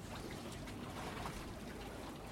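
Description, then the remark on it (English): Soft, steady water trickling and lapping against a boat moored on the Thames, overlooking Tower Bridge, on a Sunday evening as the sun sets; a continuous low wash with no distinct splashes, quiet, with no voices. “And right now, you're on a boat on the Thames, on a mooring that overlooks Tower Bridge.”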